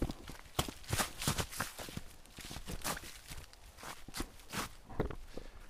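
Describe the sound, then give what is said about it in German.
Irregular footsteps crunching and scuffing over wet, leaf-covered, slippery forest ground, with uneven steps that slip and stumble, plus occasional heavy breathing. “Deswegen hört man mich ab und zu rumpeln und schnaufen. Da wieder weil ich einfach rutsche auf den Dingern.”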